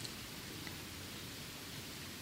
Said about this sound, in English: Oh, just when the rain got louder, then you could feel the way, oh, there's a sensitivity to that. I could feel the way people be, uh, were being touched by it.